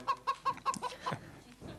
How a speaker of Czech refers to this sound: Je, hele. Puťa, puťa. To je slepička.